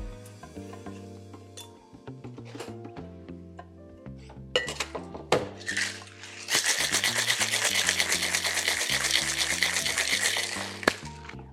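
Ice cubes clink into a metal cocktail shaker holding lychee puree, San Pell Red Bitter and vodka, then about five seconds of loud, rapid, steady rattling as it's shaken hard, all over a soft, low musical backing with no talking.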